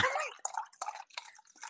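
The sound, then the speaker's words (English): Drinking water being poured into a glass near a microphone, a short, splashy trickle that sputters in uneven bursts and gurgles, fairly quiet, with no talking over it. “I was pouring, I was pouring, some water”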